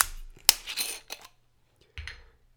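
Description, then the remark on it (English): The screw cap of a bottle of Bak's brand vodka is twisted open during a tasting: a sharp snap, then a quick run of crackling metallic ticks as the seal breaks, and a brief scrape a moment later. “So let's open this bottle. Another screw cap.”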